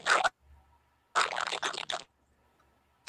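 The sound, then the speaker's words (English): Loud, crisp crunching of someone chewing crunchy food, in two bursts: a short bite, then after a pause a longer run of rapid crackly chews, with quiet gaps and no talking. “Are, you, are you eating shit?”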